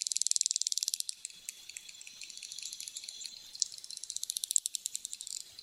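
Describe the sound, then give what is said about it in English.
Rapid trains of sharp, high-pitched echolocation clicks from bottlenose dolphins, each click roughly 100 microseconds long, with quick bursts at the start and end and a denser buzzing stretch between, fairly faint and with no voices. “To echolocate and navigate the world around them, they send out a series of rapid clicks, each roughly 100 microseconds long.”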